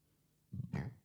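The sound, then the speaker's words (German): A man lets out a short, guttural burp in two quick low pulses, with nothing else audible around it. “und … rülpst erstmal”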